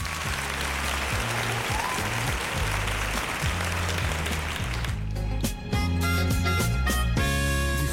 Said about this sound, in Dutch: Goed gedaan, applaus van mij.